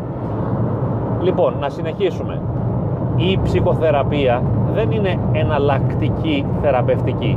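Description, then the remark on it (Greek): A steady low rumble of a car engine and tyres on the road as the car is driven, running throughout while someone talks over it, the road noise constant beneath the voice. “συγγνώμη για το θόρυβο επειδή τρέχω και θα κάνει λίγο θόρυβο η μηχανή και οι ρόδες του αυτοκινήτου.”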